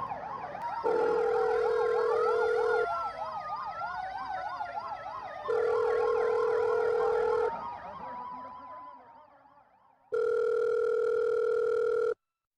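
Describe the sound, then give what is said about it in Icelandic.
Several ambulance sirens wail together as the first four ambulances arrive at the scene, soon followed by six more, their pitch sweeping up and down, then fading out, while a loud, steady electronic tone sounds in three long bursts, the last one alone. No talking. “Þremu mínútum síðar komu fyrstu fjóri sjúkrabilarnir á staðin og fljótlega eftir þeim komu svo sex til viðbútar.”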